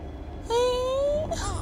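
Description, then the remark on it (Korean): A weak infant whimper from a small child held in a woman's arms: one thin, drawn-out whining cry lasting under a second, rising slightly in pitch, fairly quiet over a low background hum, like a puppy whining from lack of strength. “기운이 없어서 꼭 강아지 새끼가 음, 낑낑대는 것 같은 거야.”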